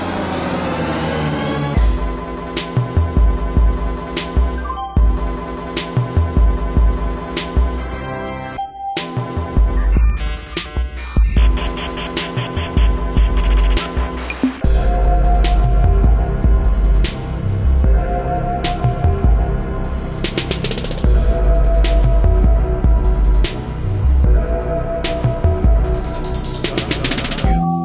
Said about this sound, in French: Mais avant d'aller plus loin dans l'explication rapide de ce titre, je vous propose juste qu'on écoute la musique d'intro où vous devriez reconnaître quelques références des années 90.